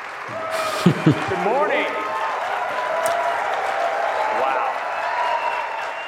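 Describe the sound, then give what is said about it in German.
A large audience at a keynote applauds steadily for several seconds as Craig comes on, a dense wash of clapping with a couple of sharp thumps near the start and a faint murmur of voices. “kommt gefühlt mehr Applaus als Tim Cook.”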